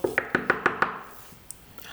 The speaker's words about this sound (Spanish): Voy a abrir la puerta, que están llamando.